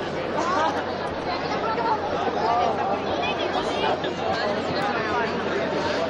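A dense crowd gathered outside the church of San Félix on Avenida Andalucía murmurs steadily, many overlapping voices blending into continuous chatter at an even, fairly loud level throughout, with no single speaker standing out.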